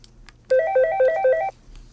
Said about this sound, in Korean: 그리고 작년 크리스마스 날 그녀와 아이들과 함께 보내고 집으로 돌아온 날 밤이었습니다. 밤늦게 처음 보는 번호로 전화가 걸려왔죠.